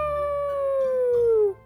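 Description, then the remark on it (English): A single long howl of hungry wolves at night, a sustained mid-pitched tone that holds steady and slowly slides downward before cutting off after about a second and a half, with no talking over it. “大野狼嚎叫，发出可怕的声音。”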